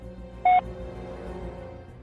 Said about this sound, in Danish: tænker, at jeg vil forsøge at taste Sebastian Kleins nummer ind